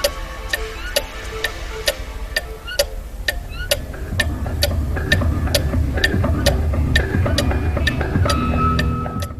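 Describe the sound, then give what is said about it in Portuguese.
A Ticker wristwatch, which counts down the time left until the wearer's death, ticks in a steady, even rhythm of crisp clicks, roughly two per second, over a low rumbling hum that swells midway and lingers to the end. “Não sabemos é quando, mas para os mais curiosos, damos-lhe a conhecer um relógio que dá as horas, mas também nos diz quanto tempo nos falta para morrer.”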